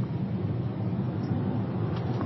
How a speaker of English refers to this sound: Jason Klein's car can so, get up and uh, go